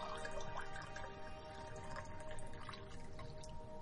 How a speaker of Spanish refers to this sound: El médico le mira de soslayo, llena un vaso con agua.